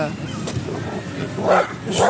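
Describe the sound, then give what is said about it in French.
Dogs bark in short bursts, two louder yaps near the end, over a noisy background with a voice murmuring under them. “Ah, on, a on est attaqué par des chiens.”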